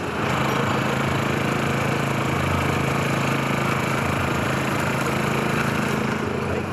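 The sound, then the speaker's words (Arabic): The small generator engine of a food cart on 42nd Street near Times Square in New York drones steadily and loudly throughout as someone walks beside the cart, a constant mechanical hum with a rough buzzing texture and no pauses or changes in pace. “أول مرة يستوقفني إن صوت آه، الجنريتورز هو ما يميز عربيات الأكل فهذا الصوت كل ما تسمعوه ده معناه إن أنا بتمشى جنب عربية أكل”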